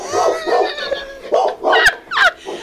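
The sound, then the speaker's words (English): A dog named Letty barks excitedly after someone knocks on a table: a rapid, irregular string of about six sharp, high-pitched barks and yips, loud and with no one talking over them. “Our dog just lost it because she knocked on the table.”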